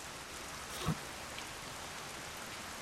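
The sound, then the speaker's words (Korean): Raindrops begin pattering down against a steady hiss of rain, with one sharper drop striking; no one speaks. “그리고 후두둑 떨어지는 빗방울.”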